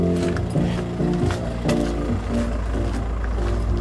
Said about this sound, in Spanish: Están todos los tres coches, uno al lado de otro, con los motores encendidos.